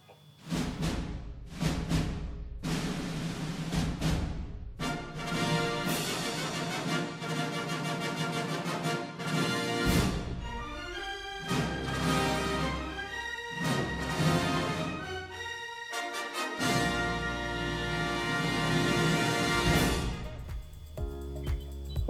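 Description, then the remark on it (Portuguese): A loud orchestral film studio fanfare, the Century Fox opening, with bold brass chords swells over rolling drums, building through several grand phrases to a sustained, triumphant finish, with no voices. “Acho que eu vou meter a abertura da Century Fox aqui.”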